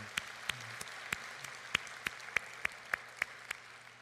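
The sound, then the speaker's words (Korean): An audience at a church service applauding together in praise of God, a steady wash of many hands with sharper individual claps standing out at an even rhythm, fairly soft, with no one talking. “우리 하나님께 영광의 박수 올려드리면 좋겠습니다.”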